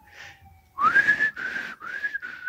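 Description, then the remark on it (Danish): A high, whining metallic squeal of train wheels braking to a stop, swelling in several loud surges over a hissing rumble, with no voices. “Blande sig med det vinende toghjul, der nu lagde an til at stoppe.”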